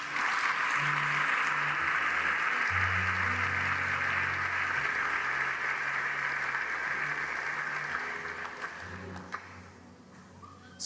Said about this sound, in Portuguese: Alguém pode dar um aplauso ao Senhor por isso?